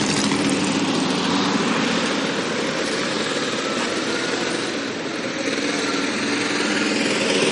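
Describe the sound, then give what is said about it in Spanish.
A taxi's car engine hums steadily as it arrives at Delicias train station, a loud continuous drone that eases slightly for a moment before returning to full strength. No voices are heard. “Llegan en taxi a la estación de Delicias.”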